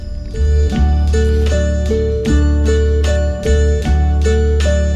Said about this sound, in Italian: nel frattempo ci ascoltiamo …